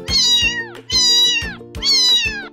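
A cat meows three times in a steady rhythm, each call loud and drawn out with a falling, whiny tone, with no talking.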